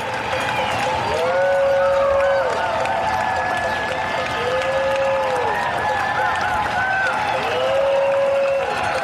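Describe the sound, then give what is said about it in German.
Dense, steady applause from many people clapping at once across the rooftops of New York, mixed with scattered cheers, while a wavering horn-like tone rises and falls three times over the clatter. “Und je länger ich dann über die Dächer schaue und klatsche, dann denke ich auch, I love New York more than ever.”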